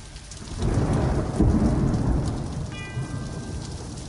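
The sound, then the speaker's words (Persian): Steady, heavy rain hisses throughout on a cloudy afternoon in Birmingham, England, in 1968, while a deep roll of thunder swells in after a moment and rumbles on, loud. A brief high tonal ring cuts in near the end. “در بعد از ظهری ابری و بارونی در حالی که صدای کوبیده شدن تیراهنها به زمین فضای شهر رو پر کرده بود”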